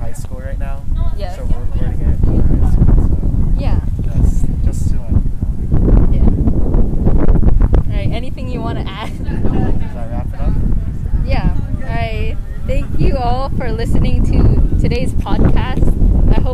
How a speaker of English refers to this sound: Also, by the way, if you hear voices in the background, it's because we're at at our